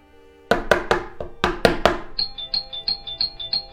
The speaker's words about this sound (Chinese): 急促的门铃声，伴随着抓狂的敲门声，阵阵响起。